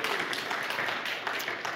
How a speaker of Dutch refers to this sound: Jullie zijn gezegend met zo'n geweldig lofprijsteam. Je mag ze best een applaus geven.